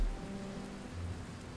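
Heavy rain pours down in a steady, dense roar with a low rumbling undertone, loud throughout the short stretch, with no voices present: a strong storm at sea, with strong wind and high waves striking a ship.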